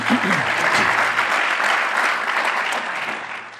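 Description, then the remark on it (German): Steady audience applause, a dense crackle of many hands clapping at an even loudness throughout, with a brief low voice murmur at the start before fading slightly at the end. “Einen Applaus, ja.”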